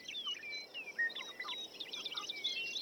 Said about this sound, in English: That bird song, more than any other sonic element of nature, appears in our classical music, appears through the ages, that bird song is music to our ears.